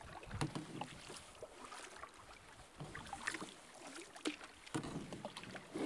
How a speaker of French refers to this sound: Le vent s'est levé un peu. Il aurait dû se lever plus tôt tantôt sur l'île.